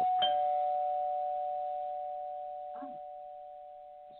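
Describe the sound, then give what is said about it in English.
A single electronic doorbell chime rings out with a clear, sustained tone that lingers and slowly fades, with a faint muffled voice briefly audible underneath near the end. “Someone's at the door.”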